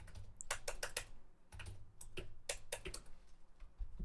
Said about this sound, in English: he is currently clicking at his computer.